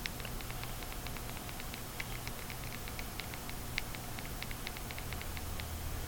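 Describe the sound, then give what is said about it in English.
A phone gives off a steady stream of small, sharp, faint clicks from the back of the phone next to the camera flash, ticking irregularly over a low background hum with no one speaking. “My phone making a weird clicking noise.”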